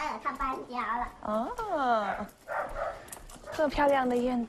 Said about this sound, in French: Le chien est là. Oh, un chiot, comme il est mignon. J'adore les chiens.